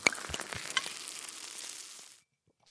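A steady fizzing crackle like a carbonated drink sizzling in a glass, with a few sharp clicks at the start, lasting about two seconds before cutting off abruptly.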